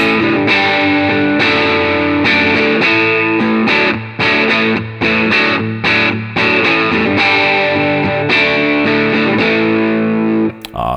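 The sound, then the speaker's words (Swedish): A distorted electric guitar on its middle pickup position plays a steady run of sustained, saturated chords and notes for about ten seconds, loud, with no talking, ending with a brief sharp click. “Och alltså den kommer fram mer med, med dist, det är ja. inget snack. Mm. Eh, mellanläget då.”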